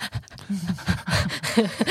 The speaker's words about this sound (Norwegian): nå, fikk jeg, nå fikk jeg pustebesvær.